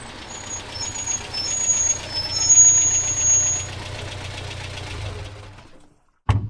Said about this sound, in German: Dann fuhr ein Auto vor, dahinter ein Pritschenwagen, dann noch ein zweiter